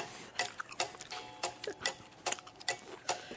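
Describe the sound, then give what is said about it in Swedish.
Wet, sticky chewing with irregular smacking clicks of a mouth working through a bite of soft, sticky gingerbread dough, quiet but intimate, with no talking. “Nu höjer vi …s mick här så ni verkligen hör”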